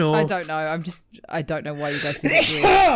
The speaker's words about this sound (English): Bless you, Jesus. This podcast has gone off the rails fucking so quickly. I uh, nearly fucking ruptured something there.